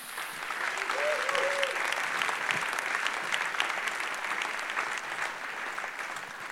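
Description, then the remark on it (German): Steady audience applause seeing off a guest who has told their story, a dense wash of many hands clapping at even loudness throughout, with a brief faint voice-like tone rising early on. “Wir verabschieden uns dich mit einem Applaus wieder auf deinen Danke.”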